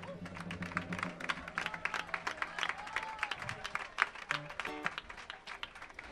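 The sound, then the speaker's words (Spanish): An audience applauds steadily for a musician before he plays a song, about six seconds of a dense, even patter of many hands clapping at moderate volume, with faint voices and cheers mixed underneath. “Un aplaudiment pel ….”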